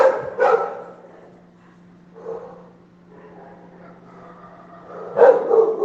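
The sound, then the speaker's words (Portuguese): Many dogs from a home kennel, plus street dogs, bark in short, loud bursts at the start and again near the end, with fainter yelps and whines between over a steady low hum. Nobody speaks. “É isso que dá ter um canil em casa, parabéns.”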